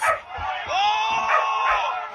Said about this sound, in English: The sound of screaming crowds fast drowning out any engines.